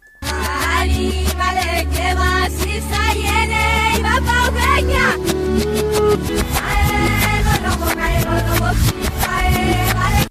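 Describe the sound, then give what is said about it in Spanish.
A song played backwards fills the whole stretch at steady, loud volume, with warbling sung melody lines and dense percussive hits swelling in rather than decaying, giving a smeared, sucking texture. “Vamos a empezar con el primer eh, fragmento de canción al revés que suena así.”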